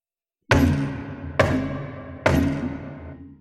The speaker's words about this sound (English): a knocking from inside the drawer.